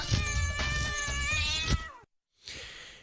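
A cat gives one long, loud, drawn-out meow, almost a yowl, then falls silent before a soft breathy rush of noise.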